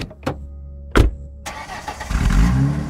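A car engine cranks in a couple of short bursts, then catches and roars into a steady, rumbling idle that grows louder, at 3 a.m. in Hougang, before a drive to a flat in Serangoon. No voices.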